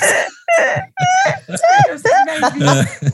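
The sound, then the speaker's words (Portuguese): A person imitates crying in a pinched, nasal voice with a hand on the nose, a run of short sobbing wails with rising and falling pitch, broken by brief pauses. “É que ninguém, ninguém tá vendo a imagem, mas é Mickey Mickey direitinho, imita direitinho você chorando.”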